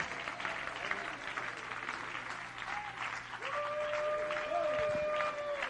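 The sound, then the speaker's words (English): An audience claps their hands in praise to the Lord in a dense, steady wash of applause, with a sustained tonal hum or note rising in the background partway through. “Come on, clap your hands and give some praise to the Lord.”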